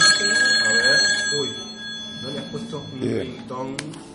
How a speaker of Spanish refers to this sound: Espérate un segundito. Voy a apagar el teléfono que creo que está sonando.